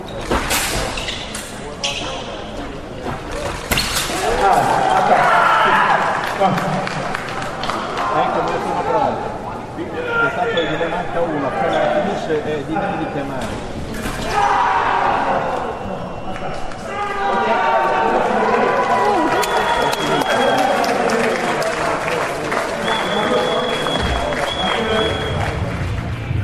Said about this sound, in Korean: 현장 소리를 들어보니까 그 칼날이 부딪히는 소리가 상당히 쨍쨍하게 잘, 잘 들리네요. 네, 이게 경기 특성인 것 같은데요. 어, 그 찌르기만 허용되는 플랩의 에페, 펜싱의 두 종목과는 다르게 샤브레는 찌르기, 배기가 모두 허용이 됩니다.